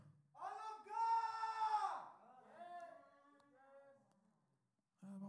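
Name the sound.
person screaming loudly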